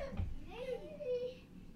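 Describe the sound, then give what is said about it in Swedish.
A young girl wails and cries in one drawn-out, wavering scream, fairly faint, with low background rumble underneath. “Därför nu skriker hon.”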